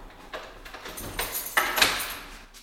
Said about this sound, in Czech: který už otevírá dveře do prvního sálu. Ten je věnovaný historii Žumberka.